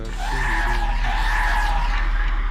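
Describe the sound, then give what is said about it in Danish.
A Volvo car brakes hard and its tires skid in a long, loud, steady squeal lasting a couple of seconds, with engine rumble underneath and no voices. “Jeg ville have nogle øh, bremselyde. Så det lavede vi med DR's Volvo.”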